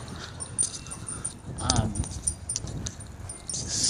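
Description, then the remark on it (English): A dog shuffles about, collar tags jingling, and lets out a short, thin whimper midway through, with faint rustling and movement around it. “So, um, gotta get this dog out of here.”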